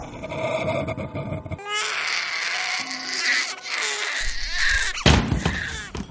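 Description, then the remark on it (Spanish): A young girl sitting in her crib at night screams and cries loudly in sustained, strained wails lasting several seconds, preceded by a muffled rumble and ending with a sudden clatter. “La luz del pasillo estaba encendida y ella estaba sentada en la cuna llorando”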